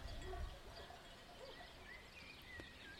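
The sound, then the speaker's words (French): Faint livestock bells clank and jingle irregularly as a shepherd walks his flock of sheep along, with soft outdoor rumble beneath and no voices. “Depuis le deuxième étage de cette maison hantée, nous pouvions voir le berger qui promenait ses moutons flanqués de leurs grelots bruyants.”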